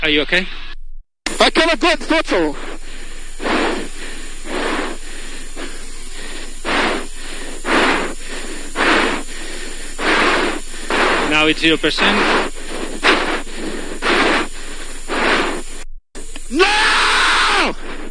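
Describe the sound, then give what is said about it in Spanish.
Racing driver Leclerc screams and groans in anguish over a crackly, tinny team radio just after crashing at a fast corner while leading the race, letting out repeated desperate cries in bursts against a steady hiss of static, ending with one long, strained shout. “Escuchamos la radio.”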